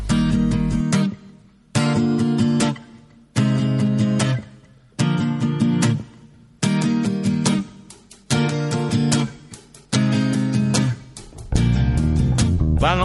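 A slow Celtic folk ballad with a sung melody over warm, full instrumentation, moving in regular swelling phrases separated by brief pauses, loud and close throughout.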